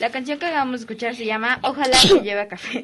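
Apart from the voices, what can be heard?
sneeze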